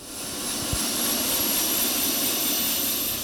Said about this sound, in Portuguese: Nós vamos entrar agora nesse helicóptero da Receita Federal para acompanhar um dia da Operação Crampus, no combate ao contrabando aqui no centro de São Paulo.